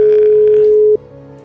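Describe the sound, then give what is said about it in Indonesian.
A steady, loud telephone tone hums continuously for about a second while a call is being placed, then cuts off abruptly, leaving a quieter line hum behind. “Kita coba telepon lagi uh, Vera.”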